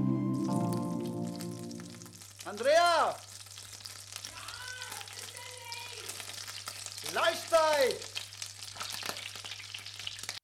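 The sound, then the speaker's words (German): Meat sizzles steadily in a frying pan, a continuous crackling hiss that runs the whole time, with a couple of louder surges and faint voice-like sounds partway through. “So, Freunde, es brutzelt wieder in der Pfanne, aber es brutzelt natürlich nur mit vernünftigem Rinderteig in der Pfanne”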